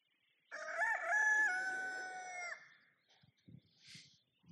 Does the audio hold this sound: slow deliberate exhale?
no